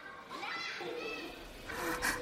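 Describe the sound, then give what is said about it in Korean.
Children playing and running about inside a kids' café, with lively overlapping kids' voices and shrieks forming a continuous busy din, amid children's songs and mothers calling their children's names, growing louder and brighter toward the end. “키즈 카페에 도착해 입장료를 계산하는 동안 카페 안에서는 동요와 아이들이 뛰어다니는 소리, 애들의 이름을 부르는 엄마들의 목소리가 튀어나왔다.”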